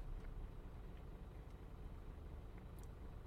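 Steady low rumble of a car's interior while driving, recorded with an AUDIX microphone mounted in the car, a continuous engine and road drone filling the cabin at a constant level, with no voices.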